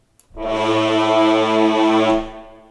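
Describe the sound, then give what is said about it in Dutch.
A deep, blaring brass-like blast of the kind used in action movie trailers, sustained loudly for about two seconds with a dense harmonic roar before cutting off, with no talking. “Dat is een beetje dat geluid wat eh, sinds eh, de eerste Batman van Christopher Nolan in ongeveer in iedere actiefilm zit.”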